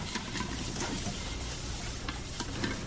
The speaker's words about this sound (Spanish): Friega el resto de escurridores de comida.